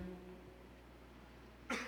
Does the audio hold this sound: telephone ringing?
no